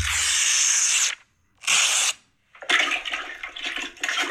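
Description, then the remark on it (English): Someone plunges a toilet: two short watery whooshes separated by brief silences, followed by a longer run of sloshing, gurgling surges. No one speaks. “Yeah, that sounds like he's sort of doing some plunging action.”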